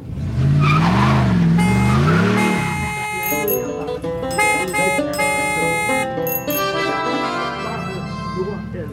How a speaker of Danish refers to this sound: Øh, og så skal vi selvfølgelig lige have den her jingle, fordi det handler altså om trafik i dag.